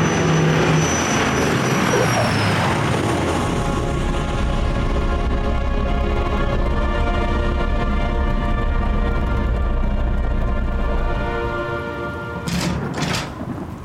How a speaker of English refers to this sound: What is it? It's so beautiful. A magnificent bird of many colors. It's so large. I don't think that's a bird. That is definitely not a bird. That's a Ford tri-motor. Whatever it is, it's headed straight for us.